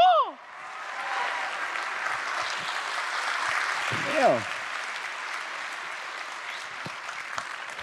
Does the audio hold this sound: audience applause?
yes